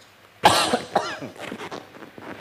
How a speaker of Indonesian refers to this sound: Jadi mohon maaf ya kalau diselingi oleh suara batuk.